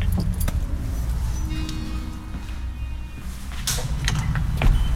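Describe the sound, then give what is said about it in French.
Keys jangle and clink against metal as an agent unlocks and swings open a heavy door at the Montluc prison national memorial, with scraping and clanking over a low rumble of background noise. “La porte est ouverte.”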